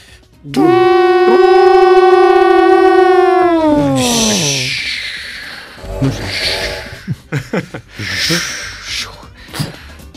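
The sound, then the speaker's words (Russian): A train horn blows one long, steady, mid-pitched hoot for about four seconds as the train departs Yekaterinburg, sagging in pitch as it fades out, followed by breathy laughter and short bursts of talking. “Ну что, давайте отправляться из Екатеринбурга, наверное, уже. Да, да. Гудок.”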